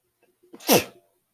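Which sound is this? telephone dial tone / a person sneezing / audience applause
a person sneezing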